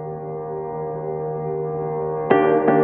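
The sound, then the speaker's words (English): A sustained electronic synth chord hums steadily at moderate volume, then two sharp, bright accents punch in near the end, like the start of an electronic dance pop track. No voices. “If you want to be in a good mood, then you better listen to this song.”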